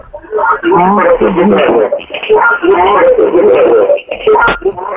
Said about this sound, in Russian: Алло. Алло. Вас, алло. Э, приглушите, пожалуйста, звук радио.